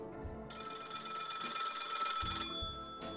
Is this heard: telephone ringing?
yes